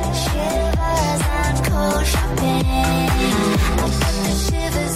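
An upbeat pop track plays loudly and steadily, driven by a punchy, regular electronic beat and deep bass, with a melodic female vocal riding over the top.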